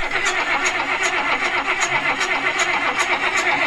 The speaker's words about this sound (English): But uh, what got me thinking about that car was the John Deere, the, the tractor starting audio that I played. You know, this.